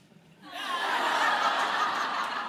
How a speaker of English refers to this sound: that ah you're hearing in the audience, it's in response to a photo of Tobin and me standing in a hallway